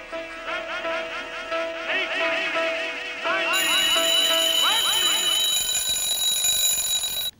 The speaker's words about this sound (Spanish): Y para agregarle más peso, hizo sonar un despertador al final para llamar la atención de todos.